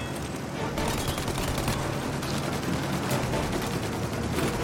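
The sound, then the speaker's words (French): Rapid, sustained gunfire aimed at an aircraft's engines crackles without pause, a dense barrage of overlapping shots over a constant loud roar, with no voices heard. “Vas-y, tire dans les moteurs ça sert à quelque chose au moins”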